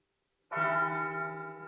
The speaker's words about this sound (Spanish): Las campanas del seminario suenan dulcemente sobre los campos llamando al ángelus